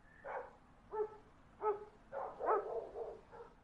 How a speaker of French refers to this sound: à Timpou, les fenêtres ne sont pas bien épaisses et les aboiements de chiens sont incessants. Ils résonnent dans la nuit. Ces chiens, ce sont des chiens errants.